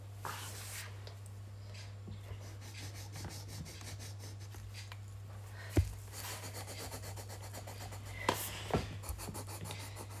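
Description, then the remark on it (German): Steady scratchy rubbing of a pencil or pen as a child of almost ten draws on paper, with quick strokes and a few sharper scrapes, over a constant low electrical hum. No one speaks. “Und im Hintergrund könnt ihr hören, ich mal es wirklich.”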